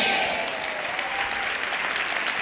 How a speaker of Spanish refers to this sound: Amén, Dile un aplauso a Jesús.